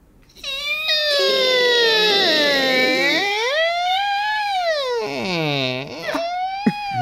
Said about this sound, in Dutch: Nou, de, eh, het gaat weer vriezen, hè? dus ja, dan gaan al die scharnieren wat meer piepen.